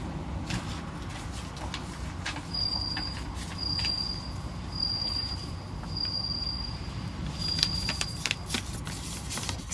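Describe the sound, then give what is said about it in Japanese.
A bell cricket chirps in repeated high, thin trills, each lasting about a second with short pauses, set against a steady low rumble of background noise. “スズムシですかって。スズムシです。”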